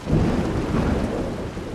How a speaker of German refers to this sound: wenn es richtig gewittert,